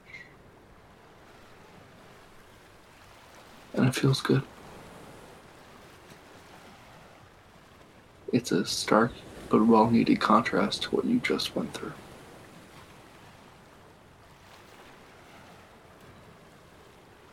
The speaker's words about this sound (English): You're on an island, an island of sorts, and there are waves hitting the shore. Crashing, you see every shimmering, bubbling peak every crest of those waves just crash.